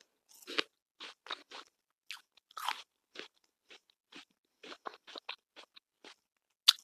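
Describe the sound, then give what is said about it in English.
Crisp crunching of someone biting and chewing an apple, a quick run of wet, snappy bites in an irregular rhythm with brief pauses, no talking. “By the way, I'm munching on an apple.”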